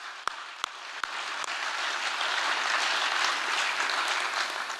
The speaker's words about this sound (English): Okay, that was some good stuff. Once again, let's give a big round of applause to Rob Seitz. Good job, Rob.